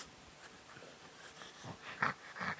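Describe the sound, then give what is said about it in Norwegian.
A small dog sniffs and snorts, a few short breathy huffs bunching together toward the end, quiet at first and then a little louder, with no talking. “Du er en liten intellektuell bikkje, Du er glad i å dra på teater, se på drama og høre på jazzmusikk.”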